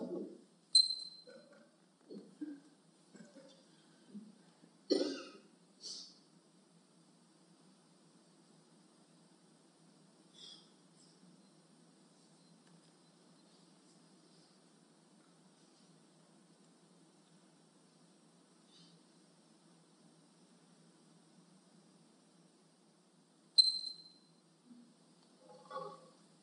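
Hushed auditorium ambience during a performance of the silent piece 4'33" at the Teatro McHallum in Palm Desert: a low, steady room hum with scattered faint rustles, creaks and brief shuffling noises, clustered at the start and returning near the end, with no one speaking.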